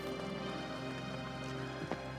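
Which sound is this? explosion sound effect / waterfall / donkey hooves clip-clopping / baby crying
donkey hooves clip-clopping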